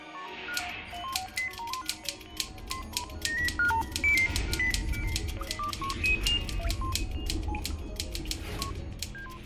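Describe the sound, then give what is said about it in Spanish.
A rapid, steady run of cell phone keypad tones, dozens of short beeps with crisp key clicks, over a low background rumble, with no talking. “517, categoría electrónica. Nombre el teléfono celular.”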